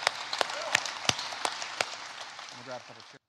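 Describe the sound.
An audience applauds: a steady wash of many hands clapping, with a few sharp, louder claps standing out. A voice briefly joins in near the end before the applause cuts off.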